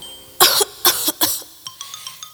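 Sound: coughing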